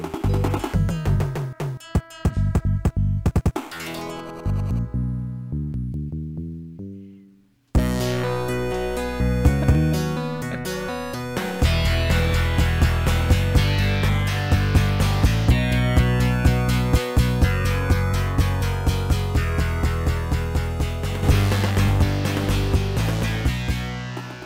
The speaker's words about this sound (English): This is from Comix Zone on the Sega Genesis.